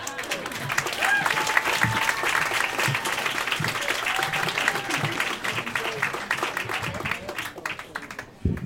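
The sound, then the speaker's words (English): An audience applauds steadily for the storytellers at a storytelling event, a dense wash of many hands clapping at a constant loud level for several seconds, with faint cheers and voices mixed in before it cuts off abruptly. “So, one more time, round of applause for our storytellers.”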